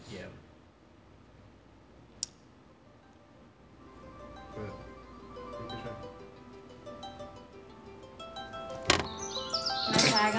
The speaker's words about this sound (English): That's the alarm. I love how it increases volume. It's just like, you may not hear me. I'm going to get louder.